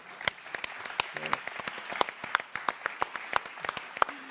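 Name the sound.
applause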